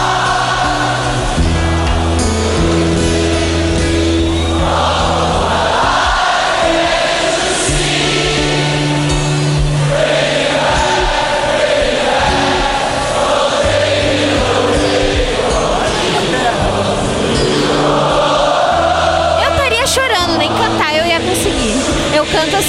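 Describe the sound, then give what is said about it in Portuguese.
A live concert crowd sings along loudly over strummed acoustic guitar, the mass of voices filling the space continuously with a steady, echoing roar of cheering toward the end. “Tem nada, é só o violão.”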